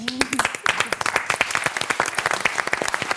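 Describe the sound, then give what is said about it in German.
A studio audience breaks into steady applause for the two new Bremen Tatort investigators, with dense overlapping claps sustained throughout at a fairly loud level and no voices standing out. “Nochmal ein großer Applaus für euch.”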